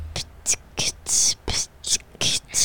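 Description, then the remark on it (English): A short theme sound effect, played to introduce a topic, made of about eight sharp, hissing shush-like bursts in a quick, uneven rhythm, fairly loud, with no music or talking alongside. “That is our that's the shut your mouth theme song because we're introducing a topic right now.”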